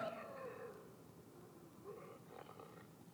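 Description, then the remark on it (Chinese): A cat growls over food: a low, continuous rumbling snarl with wavering pitch, swelling into a harsher, rougher stretch toward the end, with no talking. “然后猫也会抢食物哦，你看哦， 为什么是听起来像狗？”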